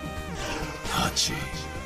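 A single sharp sneeze bursts out, a quick hissy explosion of breath with a brief trailing puff, heard over a steady humming tonal background.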